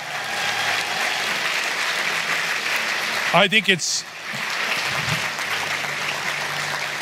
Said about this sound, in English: Church, if you believe that, just give them a clap and a shout.